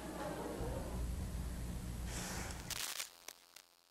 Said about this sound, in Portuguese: Esse último som que vocês ouviram foi a âncora do jornal, dando uma bufada de ar.